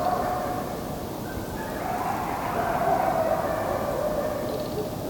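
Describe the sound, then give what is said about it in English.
A pack of coyotes howls together, overlapping wavering wails rising and falling continuously over a steady hiss of outdoor background noise, with no one talking. “I turned the mic around to point at the coyotes.”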